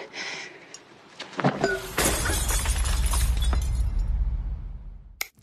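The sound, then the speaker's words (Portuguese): A crystal glass is thrown and shatters loudly, a sharp crash followed by a few seconds of tinkling, scattering shards settling, then a brief final clink before silence. “Tirar ah, uma, uma taça, taça de cristal, ou uma taça de podia ser o que?”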